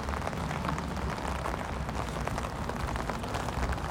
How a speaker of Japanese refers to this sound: あーやっぱりすごいな雨だからすごい降ってきたって感じ本当にやむのかな